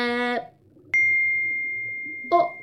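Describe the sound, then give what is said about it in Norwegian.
A single bright message notification ding for a received song link rings out clearly and sustains with a long, slowly fading tone, with brief snippets of a voice just before and at the end. “Der fikk jeg sanglinken fra Julie.”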